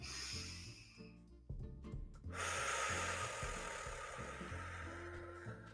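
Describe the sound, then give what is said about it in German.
A long, deep breath, drawn in through the nose and then pushed out from the belly through the mouth in a loud, sustained rush of air, over soft background music. “Durch die Nase einziehen alles und durch den Bauch wieder rausdrücken durch den Mund.”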